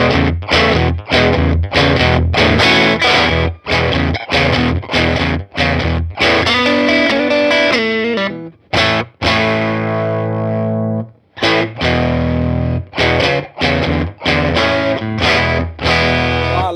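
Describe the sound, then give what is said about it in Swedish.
An overdriven tweed Deluxe guitar amp plays loud, gritty chords and riffs with rhythmic stops and a few brief pauses, thick and saturated throughout, with no talking. “nu har vi ett relativt överstyrt deluxe men alla de här har ju olika kabinetter också.”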